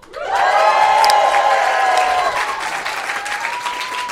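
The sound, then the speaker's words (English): A live audience bursts into loud, sustained cheering and clapping, with high whoops and shouts riding over dense applause that holds steady for about four seconds before easing slightly. “Hey, um, uh, give us a cheer if you have heard "Do Go On" before.”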